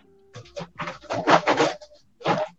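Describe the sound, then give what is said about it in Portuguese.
A noisy door swings shut, with a thin creaking squeal and a run of rattling, scraping bursts, then a short pause and one last clunk. No one speaks. “Ah, deixa ela fechar a porta, que a minha porta é muito barulhenta.”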